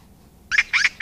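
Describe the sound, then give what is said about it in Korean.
A magpie calls in three harsh, chattering bursts that start after a brief quiet, repeating in a steady rhythm, fairly loud with nothing else around. “아, 까치 소리군요.”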